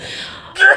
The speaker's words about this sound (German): Mir kitzelt in der Nase, Entschuldigung. Oh nein, jetzt musst du niesen.